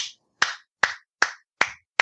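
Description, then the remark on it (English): Lewis applauds Etaix, heard on the other end of a phone line: hands clap at a slow, steady pace, about six sharp, crisp claps evenly spaced roughly every 0.4 seconds, each ringing out briefly before the next. No voices accompany them. “and that was Lewis applauding uh, Etaix, and the two became great friends.”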